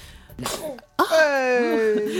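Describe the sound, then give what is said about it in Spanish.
A single sharp sneeze: a breathy build-up, then an abrupt burst, followed straight away by a voice talking. “¡Salud!”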